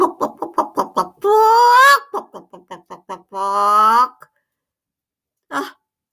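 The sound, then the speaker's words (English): A voice imitates a bird, with a quick run of staccato clucks bursting into a long, loud, strained squawk, shouting at the top of her voice in a library queue. The pattern repeats, then one short squawk follows after a pause. “And she shouted at the top of her voice.”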